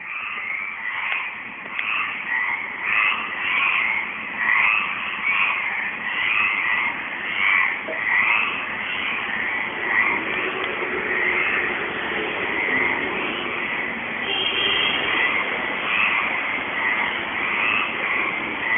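A dense chorus of frogs croaking at dusk, many overlapping rattling calls repeating steadily for the whole stretch, fairly loud and continuous with no voices.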